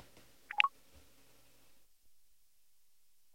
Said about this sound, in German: So, ihr habt es gehört, der Startsound ist immer noch der gleiche. Das haben sie auf dem iPhone ebenfalls nicht geändert.